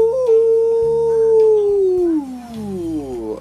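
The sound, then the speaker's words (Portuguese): A single voice holds a steady, slightly muffled "oo" (U) vowel, sung with the tip of a pen cap held in the mouth perpendicular to the body and the rest sticking out, then lets the pitch slide downward near the end, with nothing else heard. “Tampa da caneta na boca, você vai fazer com o som do U.”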